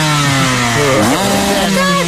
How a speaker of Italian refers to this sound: accidenti che impennata con la tua moto da cross! Eh. Ma sei già in giro a zizzagare nel traffico alle 8 del mattino?